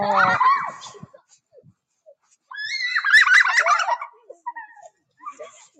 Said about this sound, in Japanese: 大はしゃぎだ、子供が。